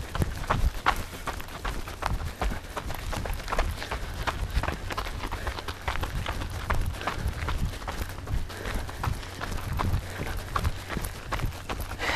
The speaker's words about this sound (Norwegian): Da har vi løpt over et halvt minutt. Så det vil si at vi er godt over halvveis.